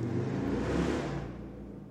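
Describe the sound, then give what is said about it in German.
A motorcycle engine roars loudly, revving with a throaty, harmonic rumble that holds steady for a moment before easing off slightly. No one speaks. “Wo ist dieses Motorrad angefangen?”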